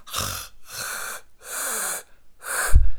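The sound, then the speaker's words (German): Four loud, hissing breaths of exaggerated Ujjayi yoga breathing, made by narrowing the glottis, in a steady rhythm, each a drawn-out airy rush through a constricted throat, alternating inhale and exhale, with no talking. “Man kommt auf seine Matte und fängt an, direkt in Ujjayi zu atmen.”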